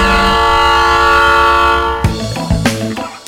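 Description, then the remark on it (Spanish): A train sounds a loud, sustained horn for about two seconds, then heavy metallic clanks and rattles of railcars rolling over the tracks follow in uneven bursts, on the railway in Bojay, Hidalgo state, Mexico, outside the migrant house El Samaritano. “Nos encontramos en Bojay, en el estado de Hidalgo, en medio de las vías del tren y afuera de la casa del migrante El Samaritano, lugar de paso para miles de centroamericanos.”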